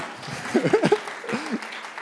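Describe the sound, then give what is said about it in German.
An audience at a church sermon claps in a steady, dense patter for about two seconds, with a few voices rising and falling over the applause. “Es hat nicht so viel mit mir zu tun und ja, ja, klar, können wir schon mal klatschen.”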